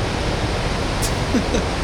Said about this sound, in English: Will this microphone work in the waves, do you think? Is it waterproof?